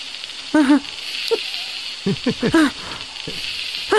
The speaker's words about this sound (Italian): Guardate questo accendino. Ora porrò la mia mano sopra di esso.